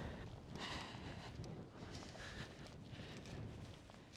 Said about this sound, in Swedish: Och nu har vi vinden i ryggen också.